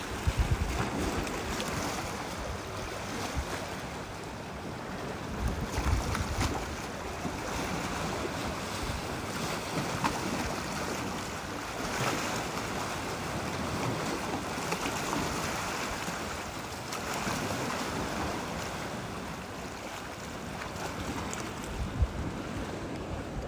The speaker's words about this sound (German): So, also ich versuche mich jetzt so ein bisschen wieder zurückzuziehen oder in Deckung zu gehen vor den ganzen Wellen, damit du mich hoffentlich gut hören kannst. Weil ich bin jetzt direkt hier am Meer verschanzt hinter einer Mauer.